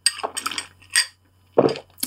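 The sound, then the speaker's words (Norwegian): A glass of soda is handled, with a few short clinks and rattling knocks in separate bursts over two seconds, separated by brief quiet gaps, and no talking. “Um, jo, uh, jeg har brus i glasset mitt i dag, faktisk.”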